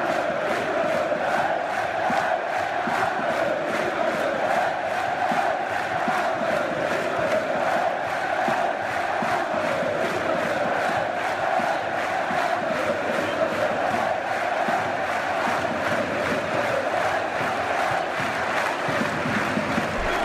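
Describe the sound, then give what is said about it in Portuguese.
A large crowd of football supporters chants a stadium refrain, 'once a lion, always a lion', in unison, a dense, continuous roar of voices with a steady rhythmic swell, sustained loudly throughout. “Então ele é utilizado de forma dinâmica, dependendo de como está o clima, vamos dizer, da partida, esse refrão.”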